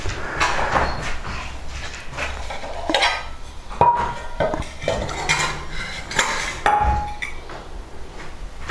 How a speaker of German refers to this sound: Oh, Schüsseln sind so laut. So, müssen jetzt leiser sein, denn wir haben die Fenster auf und wir haben es noch früh am Morgen.